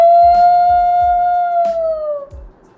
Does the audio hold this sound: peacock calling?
no